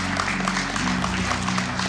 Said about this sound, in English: We're going to clap. Christians, the church, okay, we're going to encourage you.